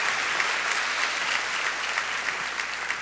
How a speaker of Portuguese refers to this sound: Dá uma salva de palmas ao Senhor em nome de Jesus.